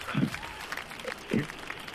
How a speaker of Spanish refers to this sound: ¡Un aplauso!